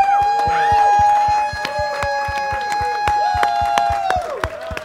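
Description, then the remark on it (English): A dinner crowd at a fall dinner series bursts into loud, dense applause for the chefs, with cheers and a sustained whistle riding over the clapping, which keeps going steadily before thinning slightly at the end. “We have until nine o'clock to make noise.”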